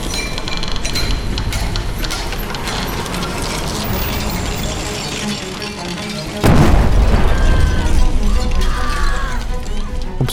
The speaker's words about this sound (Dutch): 17 april 1879. Weer klinkt een explosie. In de kolenmijn van Agrap in Framerie. De ontploffing is in de hele regio te horen.